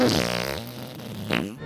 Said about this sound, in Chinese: 咦，好重啊！小黄瓜，是不是你放屁？ 不是我，胖老板，我还以为是你在放呢。